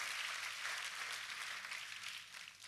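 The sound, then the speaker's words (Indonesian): A church audience claps steadily for God during a sermon, a dense wash of many hands applauding together for a few seconds, holding level before easing slightly at the end. “Tepuk tangannya pula yang paling meriah buat Tuhan kita.”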